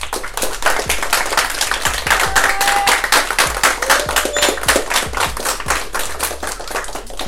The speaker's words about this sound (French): Et aujourd'hui, podcast particulier parce qu'on est dans un club formateur d'un joueur international qui a joué en Ligue 1, Gesuma Fofana. Un maximum d'applaudissements pour lui.